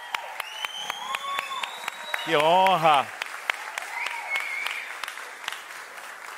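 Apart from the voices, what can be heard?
audience applauding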